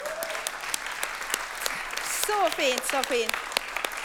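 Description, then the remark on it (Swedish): Warm applause from a church audience for people out on mission: dense, steady clapping that carries on throughout, with a voice speaking briefly over it partway through. “Vi ger dem en varm applåd igen.”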